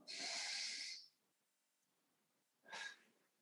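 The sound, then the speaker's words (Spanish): A long, loud breathy rush of air, a short pause, then a second shorter breath: a deep inhale through the nose followed by an exhale through the mouth during a guided breathing exercise. Clear, with no talking. “Entonces, quiero que todos cerremos nuestros ojos un segundo y vamos a respirar por la nariz y exhalamos por la boca tres veces, ¿ya?”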